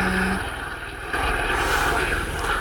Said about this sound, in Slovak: Toto je už ale druhá helikoptera, tá už svieti. Asi sa tam fakt niečo stalo.